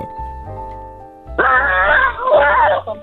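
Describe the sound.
A child lets out a loud, rough, growling yell in two bursts, imitating a gorilla to show how his mother yells when she is angry, while steady background music plays underneath.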